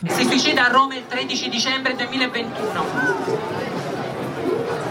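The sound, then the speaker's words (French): Dense crowd chatter at an outdoor pride march on a Saturday, many overlapping voices with a steady hubbub, a few louder voices and a brief chuckle rising out of the babble. “Et euh, voilà, j'étais donc à la marche ce samedi et on va dire, j'ai fait une sorte de micro-trottoir.”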